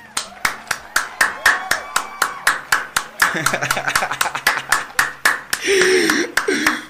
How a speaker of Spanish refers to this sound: Un aplauso para eso.